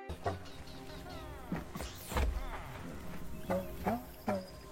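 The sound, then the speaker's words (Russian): Video game villagers scurrying back and forth in a village mumble in short nasal grunts, about half a dozen wordless voices with rising and falling pitch, scattered irregularly over a steady low background hum. “попадается несколько деревень, где селяне снуют туда-сюда, а еще они звучат забавненько.”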